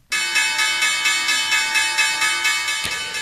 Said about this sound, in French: La cloche C'est Wall Street qui euh, ouvre à la hausse.